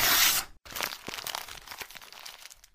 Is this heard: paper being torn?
yes